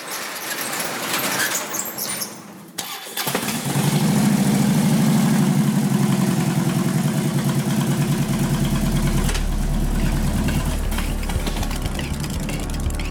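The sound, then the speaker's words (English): After a few seconds of low rattling, a vehicle's engine cranks and catches as it is about to be taken out of the garage and up on the street, then settles into a loud, steady idle with a deep rumbling drone that holds until the end. “So, without further ado, let's get this thing out of the garage and up on the street with Mr.”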